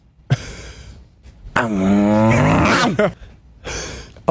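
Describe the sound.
A man's voice imitates a dog barking in a popular soundbite from 2018: a short yelp, then a long, strained, growling bark, followed by another brief bark. Loud, with no talking.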